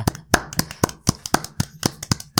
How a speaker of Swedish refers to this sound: Ja, ja, vi gör så här, vi, först applåderar vi det här, för jag, jag vet inte vad vi annars kan göra, för det är...